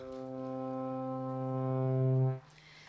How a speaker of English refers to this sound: It has three different kinds of strings. The first string is the drone string, which plays a continuous sound like the bagpipe.